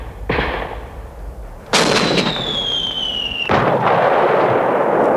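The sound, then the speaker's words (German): Booming blasts and bursts of gunfire with a descending whistle like an incoming shell before a big explosion, followed by sustained loud rumbling and crackling; a war sound-effects cassette played on a cheap school cassette recorder in a classroom. “Dann spielte er auf dem billigen Schulkassettenrekorder eine Geräuschekassette ab, die in etwa so klang.”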